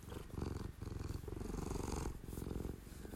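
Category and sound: animal, cat purring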